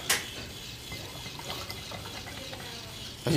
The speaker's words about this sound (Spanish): Lo que, vamos a echarle el agua de acá. Ahí va.